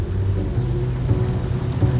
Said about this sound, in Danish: Det regner den dag.